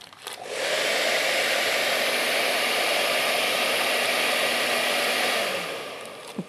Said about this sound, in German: dann nimmt man einen Föhn. Mhm. Ich halte mal so lang. Genau, mache ich mal an, schön heiß.